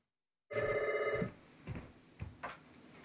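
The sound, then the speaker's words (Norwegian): A telephone at the Sotheby's auction house rings once in a bright, steady electronic trill lasting under a second, followed by a few soft knocks and faint background noise. “Det er mange telefoner til auksjonshuset Sotheby's om dagen etter at det ble kjent at Petter Olsen selger sitt eksemplar av Munchs Skrik på deres auksjon i New York.”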